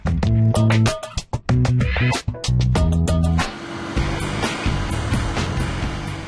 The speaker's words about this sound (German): Eine Baustelle mitten in Hof. Hier lassen die Brunnenbauer Sonden ins 120 Meter tiefe Bohrloch ein.